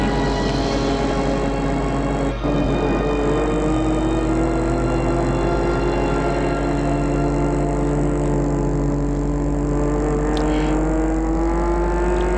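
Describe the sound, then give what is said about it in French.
A car engine drones steadily as the vehicle drives through deserted Paris streets and leaves Paris toward Versailles, its hum rising slightly in pitch as it picks up speed, loud and continuous throughout with no voices. “Et quitte Paris, direction Versailles.”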